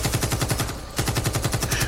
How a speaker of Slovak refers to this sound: A vtedy to príde. Na nočnej ceste sa ozve streľba zo samopalu.